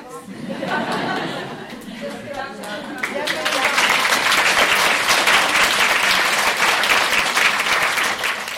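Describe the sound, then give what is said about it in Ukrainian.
A voice speaks briefly, then loud, sustained applause from a large audience fills the Lviv Philharmonic concert hall, dense and steady with scattered murmurs, continuing to the end, heard in a radio report. “Щойно ви чули репортаж з Львівської філармонії.”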